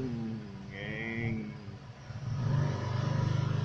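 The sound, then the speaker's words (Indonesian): A voice imitates a motorcycle engine revving, with a droning buzz that rises, dips, then swells into a louder, pulsing rev near the end. It sounds fairly loud. “suara motor ngeng ngeng ngeng”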